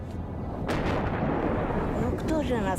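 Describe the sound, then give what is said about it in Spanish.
Loud artillery shelling, fire coming from Ukraine onto villages on the demarcation line in Donetsk: a sharp blast early on, then a continuous deep rumble of booming fire, with a voice briefly audible near the end. “¿Quién creen que nos está bombardeando? Todo el fuego viene desde Ucrania.”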